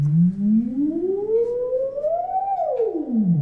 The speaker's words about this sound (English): This is a theremin. This is a uh, electronic.